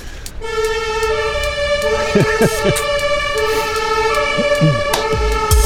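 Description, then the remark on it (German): A steady, loud emergency vehicle siren tone drones continuously in the background, holding a fixed pitch rather than wailing, while brief snatches of a voice are heard underneath it. “Wir sind alarmiert, wie man im Hintergrund hört.”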